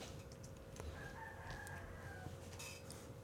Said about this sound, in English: And uh, if you did hear that, that was a rooster.